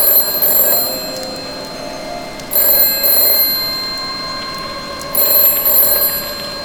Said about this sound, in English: Don't answer that phone.